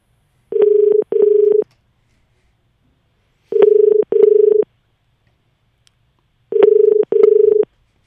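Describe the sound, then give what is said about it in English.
A telephone ring tone sounds three times as radio station 92.9 calls Kootingal Quality Meats, each a quick double burst of steady buzzing pitch, separated by pauses of a couple of seconds. Clear, with no talking. “Should I do it on the phone?”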